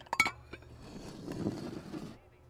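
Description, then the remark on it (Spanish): A few sharp clinks of dishes and cutlery, then a softer, steady clatter and shuffle of uneaten breakfast plates of pancakes and cereal being gathered and cleared, with no voices. “Ok, si no tienen hambre, levanten los platos.”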